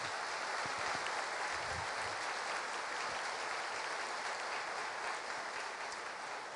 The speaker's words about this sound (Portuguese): Aplauda o Senhor por isso, maravilha.